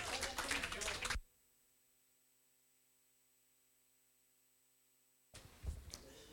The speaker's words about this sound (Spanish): Dale un aplauso a Jesús.